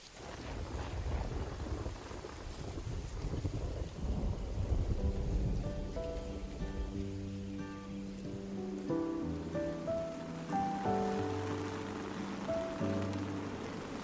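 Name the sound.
thunderstorm with rain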